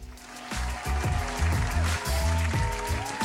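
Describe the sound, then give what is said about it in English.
A crowd cheering sound effect: a loud, continuous roar of many voices with steady rhythmic thumps, about two per second, running underneath for a few seconds. “Jesse wants to have the crowd go wild.”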